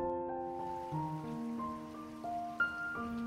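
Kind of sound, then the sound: nature, rain falling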